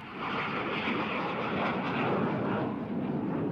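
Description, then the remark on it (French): A loud, steady roar of an airplane taking off for Tokyo, a broad rushing engine noise that holds constant throughout with no voices present. “et donc là, l'avion décolle pour Tokyo.”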